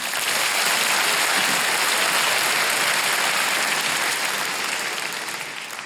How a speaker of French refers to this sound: Je sais pas si vous avez senti plus de volume mais moins d'enthousiasme, hein, quand même. Et c'est parce que là, tous ceux qui viennent d'applaudir, ils savent un truc que les autres, vous ne savez pas.